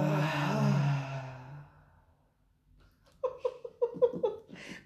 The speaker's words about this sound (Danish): Og lad os tage en afsluttende vejrtrækning sammen.